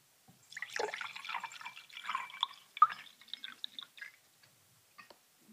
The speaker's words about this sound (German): Und ähm, ich gieße jetzt einfach Wasser in die Gläser und dann sagst du mir danach, welches welches war. Okay, Wasser Nummer 1.